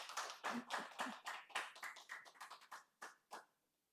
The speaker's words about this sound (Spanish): Un fuerte aplauso para nuestro Señor y vamos a orar.